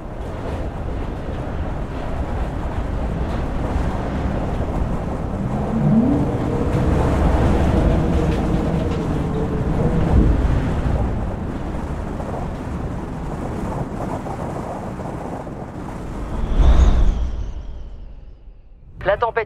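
Strong storm wind roars steadily outside during a storm in Maine-et-Loire, a dense rushing rumble that swells in gusts and briefly surges louder near the end before dropping away.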